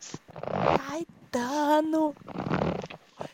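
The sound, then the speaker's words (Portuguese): Two scratchy rubbing bursts of someone wiping a runny nose after crying, separated by a voice calling out loudly, then a brief faint click at the end. “é limpando meu nariz que eu tava chorando.”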